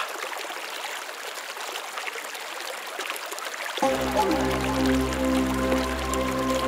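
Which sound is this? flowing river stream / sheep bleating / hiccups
flowing river stream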